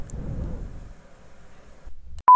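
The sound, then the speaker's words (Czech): A washing machine runs in the background during a sound recording test, a low, churning rumble that eases after about two seconds, then a couple of loud, sharp knocks. No one speaks. “Právě probíhá test nahrávání zvuku s pračkou v pozadí.”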